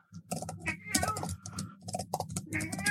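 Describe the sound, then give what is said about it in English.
A cat that has just eaten makes a run of short, repeated vocal noises in the background, fairly quiet and close together, with soft tapping or clicking mixed in. No one speaks. “complete with uh, my cat Miles in the background, who's just eaten”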